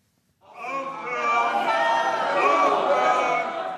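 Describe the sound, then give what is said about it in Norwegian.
An opera audience at a performance of Richard Wagner's 'Tannhäuser' in Düsseldorf shouts and clamors in angry protest, many voices at once, loud and sustained, rising quickly after a brief silence and staying at a steady, agitated roar. “Hold opp! Hold opp! roper publikum rasende under oppføringen av Richard Wagners opera 'Tannhäuser' i Düsseldorf tidligere denne måneden.”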